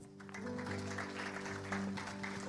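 An audience applauds in a dense, steady wash of clapping that lasts the whole moment, with sustained low held notes, like a keyboard, humming underneath.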